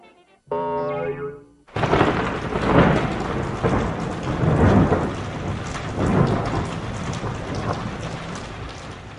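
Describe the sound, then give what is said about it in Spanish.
After a brief twangy tone, a thunderstorm sets in: steady, hissing heavy rain with deep rumbles of thunder swelling and fading several times, no voices. “Los hombres llegaron cuando ya había empezado a llover.”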